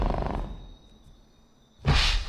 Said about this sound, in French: et plus tard dans la scène de la cuisine, c'est les raptors et le souffle du raptor contre la vitre de la porte de la cuisine.